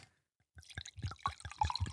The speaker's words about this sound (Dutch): Moet je even bij de microfoon doen, hè, dat inschenken.